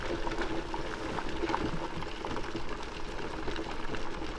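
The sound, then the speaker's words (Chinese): A big pot boiling, with a steady, dense rolling of bubbles that pop and gurgle at an even loudness throughout, with no voices or other sounds. “你感觉你所有的紧张、不开心的感觉，通通都留在了咕噜咕噜咕咕噜咕噜咕噜的大锅子里了。”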